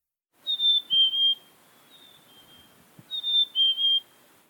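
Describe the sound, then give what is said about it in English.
A black-capped chickadee's clear, whistled song: a sweet descending two-note phrase sung twice with a pause between, fairly loud against a quiet background. “The black capped chickadee, for example, sings pretty much the same tune all across North America.”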